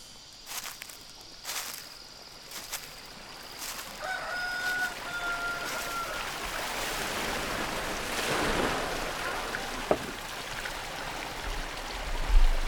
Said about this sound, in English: coming out of the stream, there are bamboo spillways that divert the water and flow into the fish pond down below. In the process, it's aerating the water for the fish.